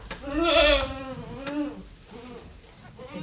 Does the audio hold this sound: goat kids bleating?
yes